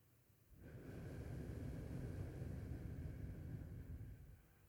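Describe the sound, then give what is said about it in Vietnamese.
A long, steady breath exhaled through pursed lips during a breathing exercise, as if blowing, rising quickly and holding an even airy hiss for about four seconds before fading, with no talking. “mà thở ra bằng miệng thì mình dùng hơi mình đẩy qua hai cái bờ môi của mình tức là mình hơi à, chấm hai cái môi của mình lại để mình thở ra giống như mình đang thổi một cái nén đó.”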